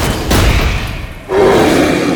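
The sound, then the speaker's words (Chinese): Two loud, booming gunshot blasts from Friday's gun in a Robinson Crusoe story, shooting three wolves. The first comes early on and the second about a second later, each a broad crashing burst that rolls on and lingers rather than cutting off sharply. “星期五的枪声响了，三只狼应声倒下。”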